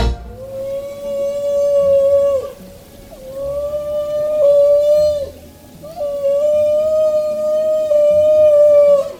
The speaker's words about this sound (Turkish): Bugün Dünya Balina Günü. Doğadaki en ilham veren canlılardan balinalar, karmaşık ve gizemli konuşmalarıyla okyanuslarda dünyayı dolaşırlar.